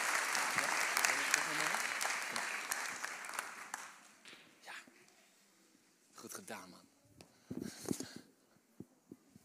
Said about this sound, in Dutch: Mag ik een heel groot applaus voor mijn kanjerie? Kom maar naar mama.